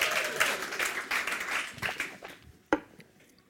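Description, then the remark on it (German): Audience applause, a dense crackle of many hands clapping that thins out and fades over a few seconds, ending with one sharp isolated clap. “Ja, Applaus, genau.”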